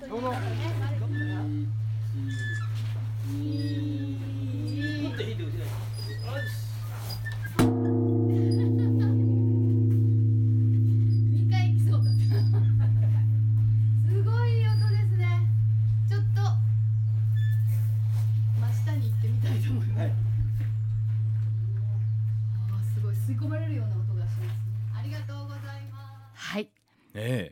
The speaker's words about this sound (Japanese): このミーゼラの鐘は音がいいということで、まあ、有名なんですね。で、まあ、ミーの晩鐘といいまして夕方にこの鐘は毎日つくんですけども、えー、参拝の方にも、えー、ついていただいてる鐘ですので誰か代表でついていただきましょうか。